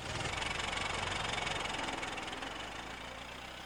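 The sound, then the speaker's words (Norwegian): A steady, rumbling car engine runs with a faint rhythmic knock, loud at first, then gradually easing off as if pulling away, as cars tightly loaded with exhausted Norwegian soldiers drive off in retreat to Aurdal on a cold April night. No voices are heard. “Trangt opplasta i biler kjørte de av sted denne kalde aprilnatten.”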